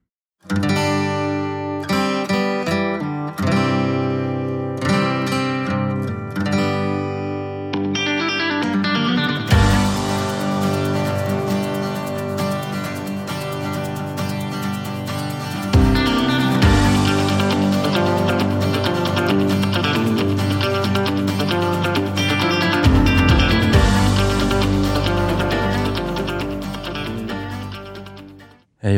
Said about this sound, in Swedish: Och vad, vad var det vi hörde där i början? Var det... det där var ett eh, utdrag ur låten